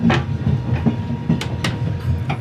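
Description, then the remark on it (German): The Glacier Express train, travelling at 30 to 50 km/h from St. Moritz in the Engadin to Zermatt in Valais, rumbles steadily along the rails with a deep low drone, punctuated by sharp, irregular clacks and metallic clicks as the wheels pass over track joints. No one speaks. “Durchschnittlich 30 bis 50 Kilometer pro Stunde fährt der Glacier Express von St. Moritz im Engadin bis Zermatt im Wallis.”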